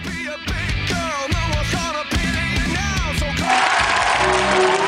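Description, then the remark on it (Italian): An Italian TV studio audience shouts "Matteo" and cheers over loud, rhythmic, pulsing music during Matteo Salvini's triumphant entrance on Barbara D'Urso's show, then breaks into dense, steady applause that fills the last second and a half. “l'entrata trionfale di Salvini dalla D'Urso, dalla signora D'Urso di ieri, col pubblico che urla Matteo, Matteo, Matteo.”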